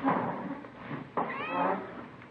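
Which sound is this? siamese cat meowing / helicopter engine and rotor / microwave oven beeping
siamese cat meowing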